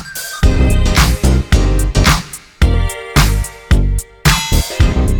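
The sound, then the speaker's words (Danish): A loud, punchy chime jingle introducing a news segment: bright bell-like tones ring over heavy rhythmic hits that land in short bursts for about five seconds, with no one speaking. “Lidt klokkespil til at gøre jer klar til at få en masse nyheder”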